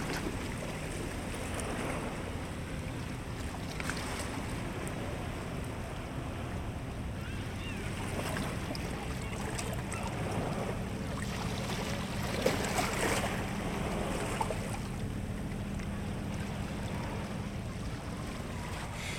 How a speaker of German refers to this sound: und ausatmest, stellst du fest, dass jeder deiner Atemzüge mit dem Brechen einer Welle zusammenfällt.